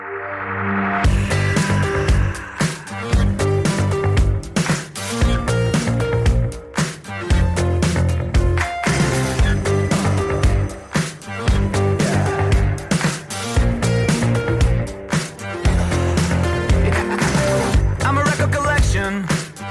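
A loud, full pop-leaning song from an album with a strong pop share plays for about twenty seconds, with a steady driving beat under dense layered instruments and bright, sustained highs, and no one talking over it.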